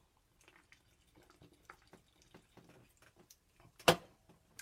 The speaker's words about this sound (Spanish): Vamos a tomar un buchito aquí de agua.